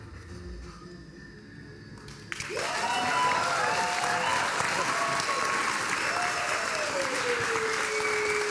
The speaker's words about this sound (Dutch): applaus trouwens.